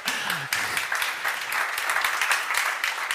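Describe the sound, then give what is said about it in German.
An audience applauds steadily, a dense wash of many hands clapping at a fairly even level, with a brief voice heard at the very start. “Einmal bitte Applaus”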